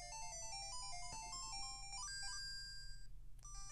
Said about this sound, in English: I entrust the harp to you. By playing certain tunes on the harp of ages, you can travel through time. Let me teach you the tune of echoes.